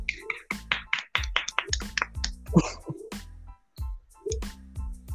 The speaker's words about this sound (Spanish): Un aplausito, pequeñito